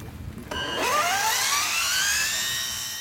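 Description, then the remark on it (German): A Japanese fish-shaped carbon climber robot, with a motor, rollers and batteries inside, starts up with a click. Its electric motor whines, climbing quickly in pitch before settling into a loud, steady high whir as it races straight up a 4 cm wide tether band toward a balloon in a competition. “Innen versteckt ein Motor, Rollen, Akkus.”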